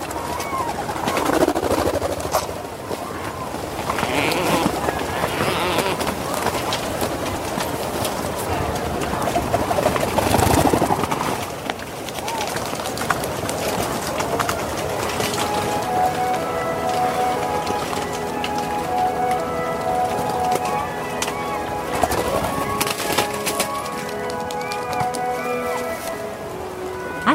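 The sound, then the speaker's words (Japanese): A dense chorus of Rhinoceros auklets at their breeding colony on Teuri Island, Hokkaido, Japan: many low groaning, moaning calls overlapping continuously, with steadier droning tones joining in the second half amid a busy din. “天売島（北海道）のウトウをお届けします。”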